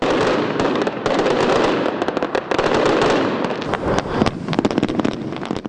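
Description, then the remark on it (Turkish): A dense barrage of fireworks launched from the Turkish Grand National Assembly in Ankara, celebrating its 100th anniversary, crackles and booms continuously over the city, with rapid overlapping bursts and sharp pops sustained throughout, loud and echoing across open air. “yaşını kutlayan Türkiye Büyük Millet Meclisi'nde ise coşku havai fişek gösterisiyle doruğa çıktı.”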